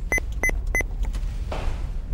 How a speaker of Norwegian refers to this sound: Er du lei av å våkne opp til bossbilen som skal rygge inn for å tømme søpla?